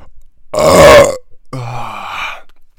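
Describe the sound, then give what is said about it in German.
A loud, drawn-out burp rumbles for about half a second, followed by a second long, lower, gurgling belch with wavering pitch. No talking is heard. “Du rührst einmal im Podcast, ich dachte, ich tu mal auch meinen, meinen Teil beantragen.”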